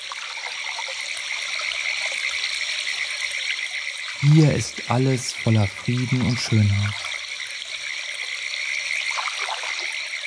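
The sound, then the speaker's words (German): A small brook's clear water trickles and babbles steadily over small stone steps, a continuous bright water sound, with a man speaking briefly in the middle over the flowing water. “Das klare Wasser des Baches springt über kleine Steinstufen.”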